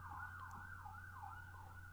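An ambulance siren wails steadily, its pitch sweeping up and down in a repeating cycle, loud, with a low engine rumble beneath and no voices.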